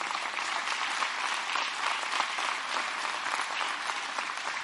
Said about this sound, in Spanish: Aplaude al Señor ahora.